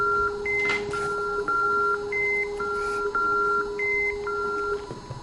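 A phone emits a steady electronic tone overlaid with a quick series of short, alternating higher-pitched beeps, like keypad dialing tones, repeating for several seconds with no voices.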